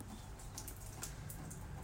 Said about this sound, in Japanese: えっと今日もですねここ湖畔の森は雨が降ってますおそらく、えー、雨が落ちる音聞こえてるかと思いますがニュージーランドはもう冬なんですね